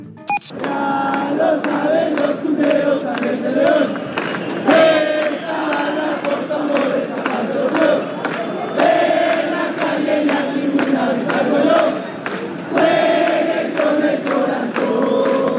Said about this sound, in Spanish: Mira, escucha un cantito del Querétaro, eh, a ver si, si lo logramos este, escuchar y entender.